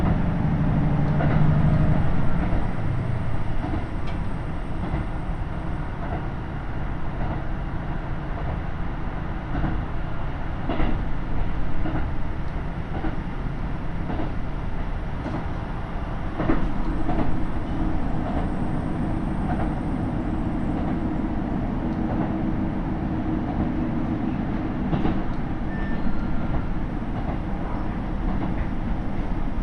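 A KiHa 75 diesel railcar on the Taita Line, running from Mino-Ota toward Tajimi near Koizumi station, runs along the rails with a steady, loud low rumble, broken now and then by sharp clacks from the rail joints. No one speaks.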